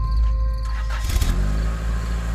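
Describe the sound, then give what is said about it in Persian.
A car engine cranks and catches, with a brief burst of revving before settling into a steady low rumble as the car is taken for a drive around, with no voices. “ماشین رو برداشتم و رفتم یه دور زدم”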